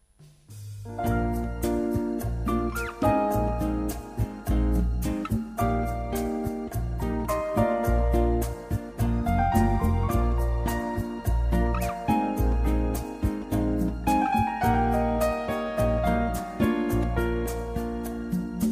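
A song intro plays with steady rhythmic beats, a deep bass line and layered melodic instruments, holding a consistent loud level throughout with no voices.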